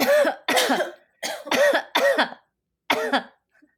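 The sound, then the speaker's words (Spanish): Six loud, forceful coughs, done on purpose as a quick test of pelvic floor and abdominal control, come in quick bursts, a pair, then a triple, then one more after a brief pause, clear with no talking. “Entonces yo les pido que hagan un esfuerzo de toser. Tosemos fuerte.”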